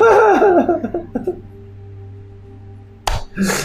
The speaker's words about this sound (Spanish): Clip del grito.